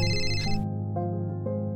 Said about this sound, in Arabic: رجعت إلى غرفتي ووجدت الباب مقفلا أقفلته بالخطأ الهاتف وجميع أغراضي هي بالداخل من وراء الباب رن الهاتف